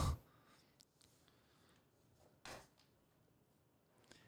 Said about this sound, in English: Oh. oh, oh, I'll give you another rim shot for that. Wow.